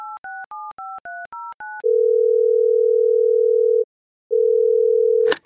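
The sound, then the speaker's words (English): Seven quick touch-tone beeps as a phone number is dialed, followed by two long, steady ringing tones with a short pause between, ending in a sharp click as the line connects. “We're gonna call him up.”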